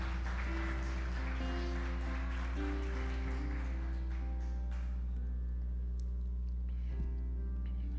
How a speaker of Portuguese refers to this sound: Aplaude Jesus aí. Amém.